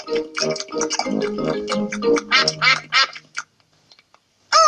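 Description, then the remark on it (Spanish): Several ducks quack loudly in a rapid, overlapping burst lasting about three seconds, then near silence with a few faint calls before one more loud quack at the end. “Se nos ha olvidado dejar algo para los patos.”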